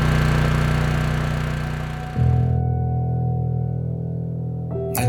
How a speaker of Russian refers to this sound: офисы все вот вытаскивают на улицу тяжелые огромные генераторы, они там либо уже заправлены соляркой, либо их заправляют соляркой, и вот они начинают пыхтеть и трещать. И вот все абсолютно, э, весь район вот полностью со звуком этих генераторов.